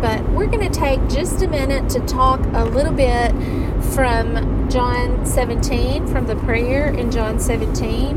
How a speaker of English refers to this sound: I'm traveling tonight, so you might hear the the rumble, the sound of the car in the background,